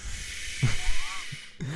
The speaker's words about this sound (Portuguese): Isto é uma chaleira a fazer chá, juro.